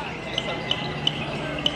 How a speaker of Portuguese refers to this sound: É um martelo de plástico usado no São João, criado em 63 em Rio Tinto por Manuel António Boaventura.